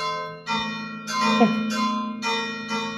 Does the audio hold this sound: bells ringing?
yes